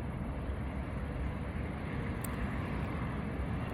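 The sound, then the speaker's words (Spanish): A steady, loud roar from a powerful 120-horsepower motorcycle engine at riding speed, blended with heavy wind rush. The drone holds constant throughout, with no talking. “Ahora voy con la moto, una moto potente, 120 caballos de potencia tiene alcanza los 240 kilómetros por hora seguramente.”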